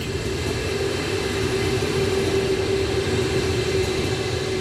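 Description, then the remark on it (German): An S-Bahn commuter train rumbles steadily along the tracks near Berlin's Ostbahnhof station, a constant low roar with a faint tonal hum, fairly loud throughout, with no voices. “In der Nähe des Berliner Ostbahnhofs liegt eingezwängt zwischen den S-Bahn-Gleisen und einem Gewerbegebiet die ITA.”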